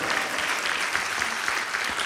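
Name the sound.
audience hand clapping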